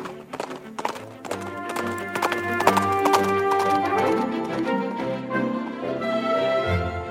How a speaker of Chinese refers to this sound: 堂吉诃德下定决心，调转马头，朝家乡的方向走回去。他那匹瘦马。一踏上熟悉的路，就飞也似的向前直奔。